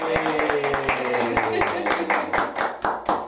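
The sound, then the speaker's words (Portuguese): A round of applause celebrating the permanence of the Confiança club: a few people clap in a quick, steady rhythm of sharp claps for several seconds, with voices cheering and calling out over it. “Dessa vez aqui em vídeo e em áudio, como você está acostumado e celebrando com a salva de palmas a permanência do Confiança.”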